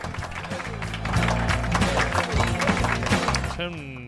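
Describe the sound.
Steady applause, a dense crackle of many hands clapping at an even loudness for about four seconds, with voices talking over it and a brief tonal voice near the end.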